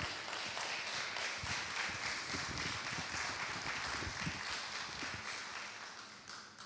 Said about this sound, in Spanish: Dale un aplauso a Dios ahí, iglesia, donde estás.